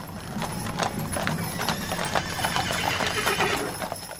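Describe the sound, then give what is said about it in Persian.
Rapid, dense hoofbeats of several galloping horses ridden out at dawn by a band of 313 riders going to defend a fort clip-clop continuously with steady loudness, and a horse's whinny briefly rises above the rumble. “روز بعد همین که صبح طلو کرد سوار بر اسب شدن و با 313 نفر از یارانشون با فریاد یا صاحب زمان برای دفاع از قلعه بیرون رفت.”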